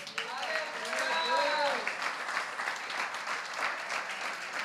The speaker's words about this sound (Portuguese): Ótimo. A um rei só aplaudimos acima da cabeça.